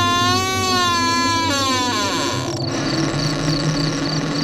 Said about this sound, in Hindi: तो हाथ लगाते ही समझ गया कि दरवाजा कई सालों या महीनों से बंद पड़ा है थोड़ी ताकत लगाने पर दरवाजा बहुत तेज और एक डरावनी सी आवाज करके खोला